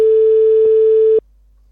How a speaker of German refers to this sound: Oh, es klingelt. Die Qualität ist wunderschön vom Klingeln. Ja, gutes Klingeln.